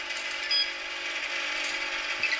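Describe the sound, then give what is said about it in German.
A steady mechanical whirring with faint repeated clicks from a washing machine running its wash cycle, with no voices. “Das ist einfach der Waschgang.”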